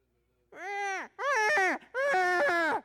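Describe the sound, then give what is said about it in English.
A person mimics a newborn's crying with three drawn-out, wavering wails, each rising and falling in pitch, loud with brief pauses between them. “Uh, and, and you learn to differentiate between the cries, but it's still cries.”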